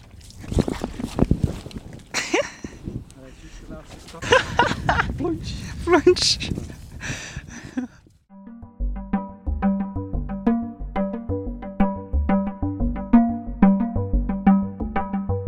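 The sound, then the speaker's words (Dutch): A person carrying recording equipment tumbles forward into a quaking bog: chaotic rustling, squelching and splashing for several seconds, then a steady rhythmic music passage takes over. “Want ik heb niet alleen natte voeten, maar ik ben ook nog eens voorovergevallen in het trilveen.”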